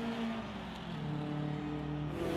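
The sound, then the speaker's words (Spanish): A Formula 1 race car's engine drones steadily as the cars race through the narrow streets of Monte Carlo at the 1967 Monaco Grand Prix, its pitch edging upward near the end as it accelerates, with a continuous buzzing roar at moderate loudness and no voices. “En el Gran Premio de Mónaco, los autos de Fórmula 1 corren por las estrechas calles de Monte Carlo.”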